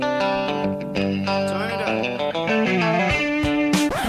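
A short, loud melodic jingle on a heavily distorted, effects-laden guitar-like instrument, with sustained harmonic notes and quick bending phrases over about four seconds, no talking.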